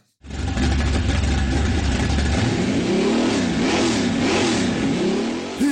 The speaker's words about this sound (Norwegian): Hører du kjerra mi i bakgrunnen? En 57-modell Chevy 350 fra Halden. En rå V8-er med høy lyd og høyt bensinforbruk.